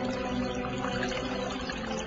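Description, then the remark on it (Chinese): Rainwater gathered from all sides pours steadily into a small river inside a cave while it rains, a dense, continuous rush of churning water at an even, fairly loud level, with no voices and no breaks for the whole stretch. “但他们不知道，这时天空又开始下雨，从四面八方汇集起来的雨水，统统灌向了洞中的小河。”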